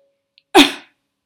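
A single short, forceful cough, sharp at the start and trailing off quickly, with silence before and after; a person coughs hard with a hand laid about three fingers below the navel, pressing in slightly.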